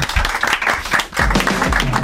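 A studio audience breaks into steady, close applause lasting the full two seconds, a dense continuous patter of many hands with faint tonal sounds emerging underneath toward the end.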